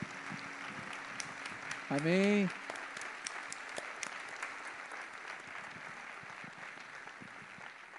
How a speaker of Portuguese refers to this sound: Tá, vamos bater uma salva de palmas ao Senhor.